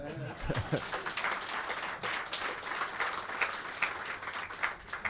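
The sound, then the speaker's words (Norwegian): An audience breaks into sustained applause, a dense crackle of many hands clapping at a steady, fairly loud level for several seconds, with a brief low voice near the start. “Ja, det var applaus for det.”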